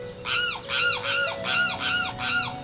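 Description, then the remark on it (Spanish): A limpkin (caraú), a black-plumaged wading bird of the lagoons, marshes and wetlands of Corrientes, calls out in a series of five loud, wailing cries, each a harsh arched note repeated at a steady rhythm with short gaps between, over a faint low hum. “Como su nombre lo indica, su característica es su grito que lo emite casi toda la noche o ante la proximidad de algún extraño a la comunidad en que vive.”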